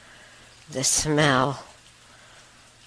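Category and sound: nature, steady rain falling outside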